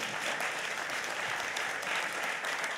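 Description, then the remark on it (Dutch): A crowd claps steadily in applause for investigative journalism, a dense wash of many hands at an even, sustained level with no voices breaking through, lasting about three seconds. “Dus, Nog één keer een applaus,”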